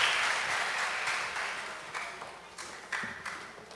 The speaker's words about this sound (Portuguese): Irmãos, a salva de palmas para esses irmãos que servem com alegria na turma do pólen.